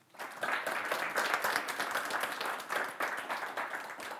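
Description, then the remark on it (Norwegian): An audience breaks into steady applause for the evening's moderator, Kjetil Dale from TV 2, many hands clapping in a dense, continuous patter that holds at an even level for several seconds. “Gi han en varm applaus.”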